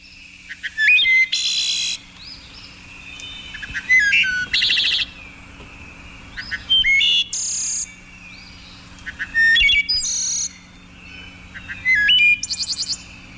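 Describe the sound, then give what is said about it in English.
A wood thrush sings alone in flute-like phrases, about five repeated bursts over a steady quiet background, each phrase rising into bright, ringing trills, loud. “here's the wood thrush at normal speed”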